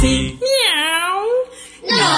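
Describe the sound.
Between brief bits of singing, a voice imitates a cat's meow: one drawn-out, wavering tone about a second long that dips and then rises in pitch, loud and clear.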